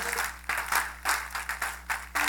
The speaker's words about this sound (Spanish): Un aplauso al Señor por su bondad, ¿verdad?